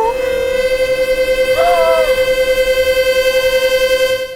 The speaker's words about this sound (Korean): 아. 아. 시원하게 방귀 끼니까 좋네.